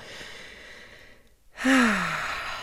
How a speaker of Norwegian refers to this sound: Så jeg bare trekker pusten